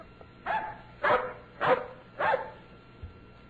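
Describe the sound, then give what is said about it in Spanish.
A dog barks four times in a steady, evenly spaced rhythm, each bark short and fairly loud, with no talking in between. “Y esa mañana, desde muy temprano, divisaron al perro que hacía movimientos extraños.”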